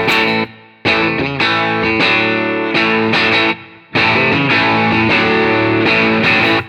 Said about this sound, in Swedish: Det, det låter som din gitarr får humbuckers.